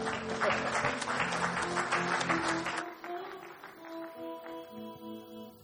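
A crowd applauds loudly for about three seconds as a woman comes forward, over steady, sustained musical tones, then the clapping cuts away and the soft music carries on alone.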